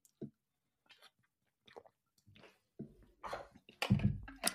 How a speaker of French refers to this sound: Je prends une petite gorgée